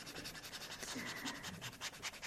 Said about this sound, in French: je, dis que c'est l'image de, euh, de la dédicace que vous êtes en train de me faire avec des feutres sur la première page de, l'album euh, En silence. Et donc, c'est une explosion qui est en train d'apparaître.